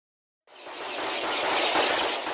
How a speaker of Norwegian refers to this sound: Ukrainsk politi prøver å skyte ned en drone, men så smeller det. jeg er helt sikker på at en politimann har klart å skyte ned en angrepsdrone.